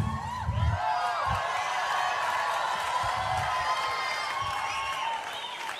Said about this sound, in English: Why do you think these people were cheering for you like that? Just to try and settle me down. Because I could see how nervous I was walking down there. Do you really think that's why they clapped like that?